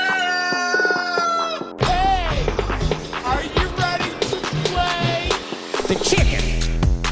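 A rooster crows loudly, then a busy, continuous flurry of chickens clucking and squawking follows, with more crowing mixed in for several seconds.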